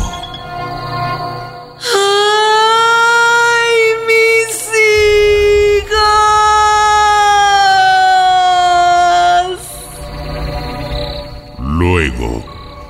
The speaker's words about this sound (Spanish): al llegar al parque central, se arrodilló en dirección a la catedral y mirando hacia oriente, se lamentó con gritos de dolor. Y allí fue donde por primera vez los pobladores escucharon ese grito.